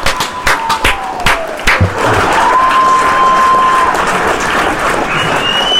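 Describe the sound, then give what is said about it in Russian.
A few sharp, separate claps quickly swell into loud, sustained applause from a crowd, with bright whistles gliding above the dense clapping near the end. “Вот так, рукоплещу я.”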